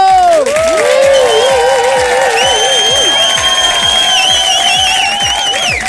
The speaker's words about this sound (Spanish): Pues este aplausito para los amigos de Maíz Pelao.